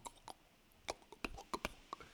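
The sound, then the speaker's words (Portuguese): A voice imitates rainwater dripping on windows with a quick, uneven run of about eight wet mouth pops and plinks, some with a faint ringing tone, and no talking. “Até já estou a ouvir aqueles barulhos em janelas do tipo...”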